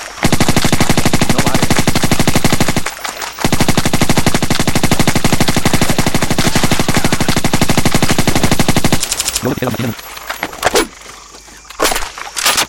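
Loud, rapid automatic gunfire from a video game, an unbroken stream of fast shots that pauses briefly, resumes for several seconds, then breaks into scattered shorter bursts.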